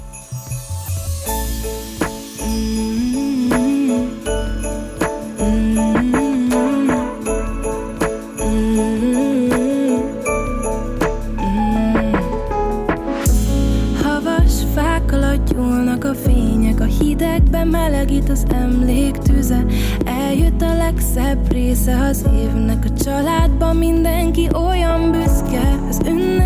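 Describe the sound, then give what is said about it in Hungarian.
An instrumental intro to a Christmas song: a bright melodic line plays over soft accompaniment, then a fuller arrangement with deep bass kicks in halfway through, staying steady and loud with no singing. “hallgassátok meg … és a …”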